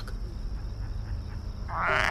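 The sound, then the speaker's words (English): A frog croaks once, loud, near the end after a stretch of low background hum, with a faint steady high tone running underneath. No one speaks. “That's a frog.”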